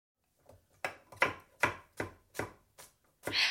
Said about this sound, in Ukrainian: Скажімо, коли я готую оцей гаспачо чи сиджу в туалеті, говорить Абрамович, нарізаючи власноруч вирощені помідори.